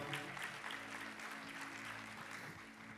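An audience at a worship service applauds a music arrangement in a steady, dense wash of many hands clapping, sustained evenly for about three seconds without a break or any voices standing out.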